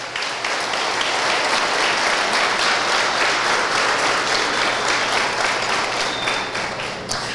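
An audience bursts into sustained applause for Jesus, a dense, steady wash of many hands clapping at full volume for about seven seconds before easing slightly at the end.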